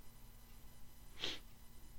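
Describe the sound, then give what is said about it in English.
A person makes one short, sharp sniff through the nose, mimicking a dog sniffing the air. The sound stands alone against a quiet, faintly humming background with no talking. “So you, you, I mean, you, you, you, you'd have a sniff, wouldn't you?”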